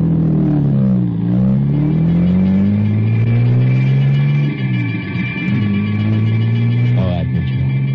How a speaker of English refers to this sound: They slide me into the ambulance. Minder gets in beside me, and away we go.